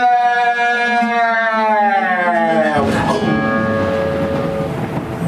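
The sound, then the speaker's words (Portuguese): A rising, wavering tonal sweep builds for a few seconds, then a sudden loud thunder clap bursts in with a broad, rumbling crash that lingers to the end, full; the thunder follows lightning on a dark night without stars or moon and shakes a house. “trovão que estremeceu a casa”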